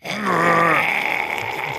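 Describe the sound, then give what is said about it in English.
A person imitates a koala's call with a single low, drawn-out groaning grunt that dips in pitch and fades after under a second, followed by faint breathy noise. “Who's got a better koala you noise?”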